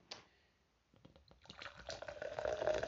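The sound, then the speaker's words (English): Brew Dr. Kombucha, Pride edition with lavender, chamomile, jasmine and green tea, is poured into a pilsner glass, starting with a few small clinks and splashes before a steady, rising gurgle of liquid filling up. “pouring this right here in the Pilsner glass even though I don't drink anymore, I still find this glass to some use.”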